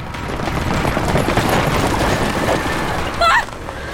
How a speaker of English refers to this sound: a massive black chariot led by four black horses pulled in front to block her path.